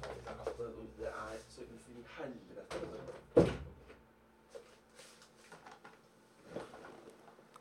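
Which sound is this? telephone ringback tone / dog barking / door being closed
door being closed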